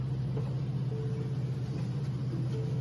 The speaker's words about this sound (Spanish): Randy Nota Loca tuvo hoy su cita en el Tribunal de Carolina para la vista preliminar. Tenemos video ah, de pues Randy llegando, ¿sabes? La guagua negra llegando ahí, Randy Nota Loca al tribunal.